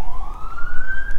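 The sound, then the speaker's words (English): A voice imitates squeaky bicycle brakes being feathered at top speed: one drawn-out, high-pitched squeal that slowly rises in pitch, loud, with no other talking around it. “I have squeaky brakes, so when they hear when I'm getting close at top speed, I feather the brake. It makes an arc arc noise”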